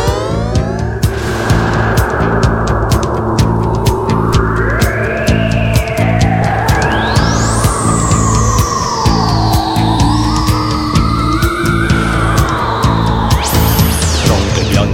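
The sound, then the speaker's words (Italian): A 1981 TV cartoon theme song intro: loud synthesizer music with swooping, rising and falling electronic sweeps over a steady, droning bass, playing continuously with no singing yet. “nella quale c'è questa scritta BEM con degli effetti”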